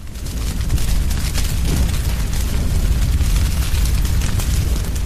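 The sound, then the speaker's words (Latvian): A loud, steady roar of burning fire with a deep rumble and scattered crackles and pops, continuous throughout, with no voices. “Vai atpazināt skaņu? Tā bija uguns.”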